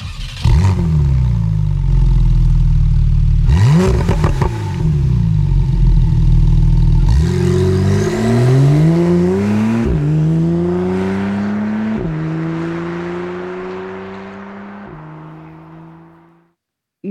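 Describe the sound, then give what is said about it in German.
A Porsche 911 Carrera 4 GTS Cabriolet sports car engine roars loudly, idling with blips of revving, then accelerating through several gear shifts, the pitch climbing and dropping with each change before fading out. “Und dann präzisiere ich ein klein bisschen. Carrera 4 GTS Cabriolet.”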